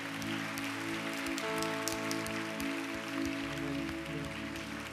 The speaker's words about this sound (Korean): 할렐루야 그렇게 말씀하신 우리 주님께 한 번 더 감사와 영광의 박수 올려드릴까요?